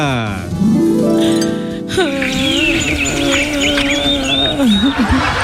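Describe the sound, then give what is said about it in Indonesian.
In a staged Cinderella story, birds chirp cheerfully in quick, high trills over a sustained voice-like tone that sweeps and holds steady underneath. “Burung berkicau dengan riang gembira, tapi Cinderella justru menangis.”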